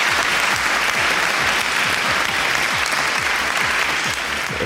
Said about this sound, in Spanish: Bueno, pues eh, con este sonido recibimos con un cordial aplauso